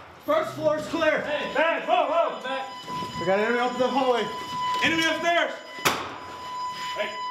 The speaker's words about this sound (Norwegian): Øvelsen er lagt opp til å være så realistisk som mulig. Hver gang en soldat blir skutt, går det en alarm inni stridsvesten. I en virkelig krig ville soldaten vært død.